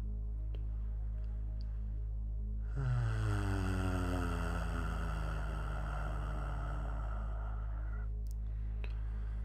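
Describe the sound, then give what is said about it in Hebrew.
During a breathing exercise, after a deep breath is held, a deep, steady hum from a human voice is let out as a sound of release. It starts about a third of the way in and holds for several seconds on one breath, resonant and sustained, over a faint low background drone. “נחזיק, נחזיק, וביחד נוציא צליל של הנחה.”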